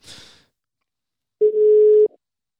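A single steady, loud ringback tone sounds for under a second after a brief burst of soft hiss, as if a phone call is being placed and is ringing on the other end.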